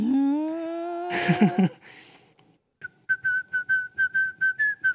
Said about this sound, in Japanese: 口笛急に出過ぎてびっくりしたわごめんなさい。うまいし。